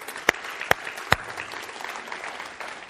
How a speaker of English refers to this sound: I, these guys worked so hard today, and I, they worked so hard this morning to get everything together to where it was at. And so I, I do. Here's what I want to do. Can you give them a round of applause because they they worked.